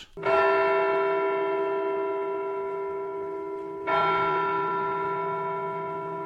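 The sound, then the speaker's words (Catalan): A church bell strikes twice, each deep, resonant toll ringing out loudly and humming on with a long sustained decay before the second strike arrives about four seconds later. “De nou, la campana va sonar, fent dos repics.”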